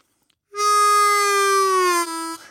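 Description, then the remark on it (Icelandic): A single sustained harmonica note, loud and reedy, held for about two seconds while its pitch sags gradually downward in a bend before cutting off; no voices. “þá er ég að beigja eina nótunum niður”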